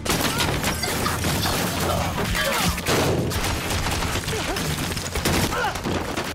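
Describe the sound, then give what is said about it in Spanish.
Dense, rapid gunfire crackles in a loud, sustained barrage, with sharp bursts overlapping and booming impacts layered underneath, an intense shootout in an action series about the modern mafia in London. “Entre disparos,”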